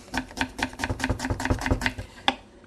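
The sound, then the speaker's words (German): A knife dices onions into fine cubes on a cutting board in a quick, steady series of about a dozen crisp taps, ending with one louder chop after a short pause. No voices. “Also, dann die Zwiebeln.”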